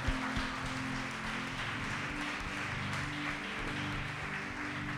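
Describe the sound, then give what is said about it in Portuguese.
A church audience claps for Jesus steadily for several seconds, the dense applause fairly even, with a low sustained hum or keyboard drone beneath it and no talking. “Você pode aplaudir Jesus por essa palavra?”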